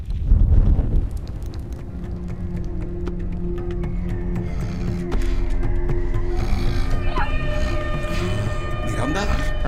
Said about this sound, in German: Hey Miranda, hast du das gehört? Oh fuck! Hey Miranda, es brennt! Aufstehen! Komm, aufstehen!